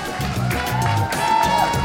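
An audience applauds a guest at the close of a show, a dense wash of many hands clapping at a constant level, with voices murmuring underneath throughout.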